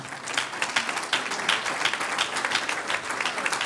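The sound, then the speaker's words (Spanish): Sustained applause from a crowd applauding the Lord: a dense, steady patter of many hands clapping at moderate loudness with small swells, continuing without pause for a few seconds. “Un aplauso al Señor.”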